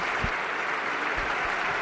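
A large crowd's applause at Valencia's Mestalla stadium during a football match tribute, as two captains carry a large wreath of flowers, rolls on as a steady, dense wash of clapping, with no voices standing out and a few low thumps under it.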